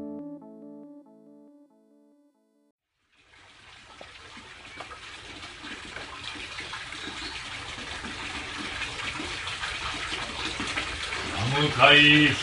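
Cold water pours and splashes steadily in a broad, hissing rush that swells louder toward the end, following a few seconds of soft sustained tones and a brief silence, during a monk's prayer and cold-water ablution before a sacred water tank.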